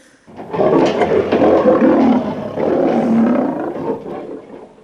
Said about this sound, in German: Wer von euch hat schon mal so einen Löwen so richtig in echt brüllen hören?